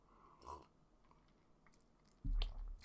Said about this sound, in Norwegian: å, herregud, han var sterk. Ja, hvis dere ikke liker slurping, send meg mail om det.